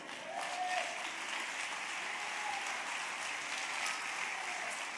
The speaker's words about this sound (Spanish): Créalo y denle un aplauso al Señor.